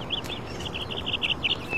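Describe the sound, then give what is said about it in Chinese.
Melodious birdsong: a rapid run of bright, high chirping notes repeating steadily throughout, clear above a steady low background hum of outdoor noise. “听左边，有没有听到特别悦耳的鸟叫声？”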